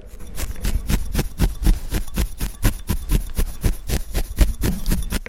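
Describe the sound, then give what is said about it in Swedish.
Needle felting a wool sculpture: a felting needle jabs repeatedly into wool with quick, dry punching sounds in a steady, rapid rhythm, with no one talking. “Det ni hör just nu det är Rakel Persson som tovar på skulpturen.”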